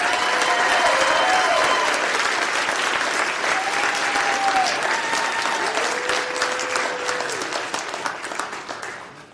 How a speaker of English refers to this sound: Let's give a big round warm applause for Dr. Jeff Morgan.